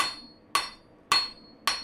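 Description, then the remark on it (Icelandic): A blacksmith's hammer strikes metal four times at a steady, even pace in an old shed at Eyrarbakki, Iceland, converted into a smithy. Each loud blow is followed by a bright metallic ring that fades quickly. No one speaks. “ég heiti Hafnur Karl Henriksson og er millistamæður og eldsmiður”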